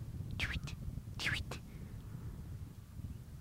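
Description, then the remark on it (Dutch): A spotted redshank calls twice, sharp rising whistled notes about a second apart, each followed by a brief second note, standing out clearly over a steady low wind-like rumble. “Uh, ik hoor trouwens een zwarte ruit te roepen.”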